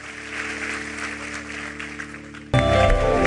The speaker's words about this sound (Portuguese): Quem recebe essa palavra, aplauda o Senhor. Vamos ficar de pé.